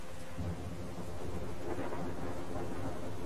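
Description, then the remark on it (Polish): Steady rain pours outside with a low, continuous thunder rumble rolling underneath, a dense wash of sound that holds at an even level throughout, with no voices. “Wiatr Deszcz pozostały gdzieś na dworze.”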